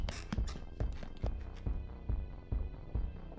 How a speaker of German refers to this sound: Hör doch, da sind Schritte zu hören.